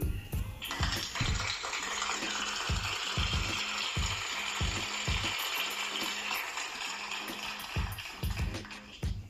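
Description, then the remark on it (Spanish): A steady round of applause thanking listeners in Panama lasts several seconds, dense crackling clapping that swells quickly and holds at a fairly loud level, with some low thumps mixed in, no talking over it. “Nuestros amigos panameños nos hacen favor de escucharnos y les agradecemos con un aplauso también.”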